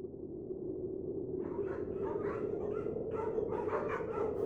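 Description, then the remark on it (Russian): A pack of 86 sled dogs of Amundsen's polar team, setting out toward the pole at temperatures down to minus 56, barks and whimpers restlessly in overlapping bursts, starting after a moment of steady low rumble that continues underneath. The yelps and whines come repeatedly. “Взяв с собой 86 выживших собак, команда отправилась в путь.”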